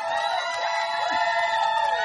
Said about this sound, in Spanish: Una ovación.